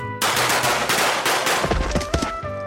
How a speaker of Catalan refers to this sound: Per això ens batrem en duel. Només un tret per persona.